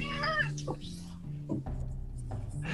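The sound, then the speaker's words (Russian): A fluffy cat meows, one drawn-out, wavering call at the start, followed by a few softer, brief sounds over a steady low background hum. “Давай показывай кота, похайпим.”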